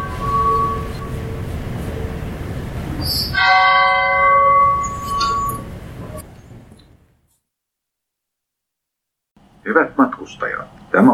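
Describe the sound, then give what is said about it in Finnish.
Steady low rumble inside an Intercity passenger train to Oulu, Finland, followed by a bright multi-tone announcement chime. The noise fades to near silence, then a voice starts speaking. “Intercity-juna Ouluun. Seuraavat pysähdyspaikkamme ovat Pasila, Tikkurila ja Tampere.”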